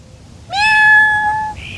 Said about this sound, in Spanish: Bienvenido a los cuentos de Sakuchan. ¡Miau!